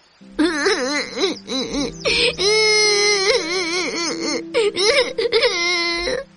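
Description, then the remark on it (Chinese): A performer voicing a cloud in a story sobs and wails in a drawn-out, quavering cry, rising and falling in pitch with short catches of breath between loud bursts, the cloud's tears falling as rain. “云彩忍不住抽泣起来。”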